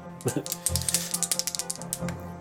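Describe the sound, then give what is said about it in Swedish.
Dice are rolled for a stealth check in a role-playing game, rattling and tumbling across a hard surface in a quick, clattering run of small clicks lasting about two seconds, fairly quiet, with a low murmur of voices beneath. “Ja, då vill jag att du slår ett ställslag.”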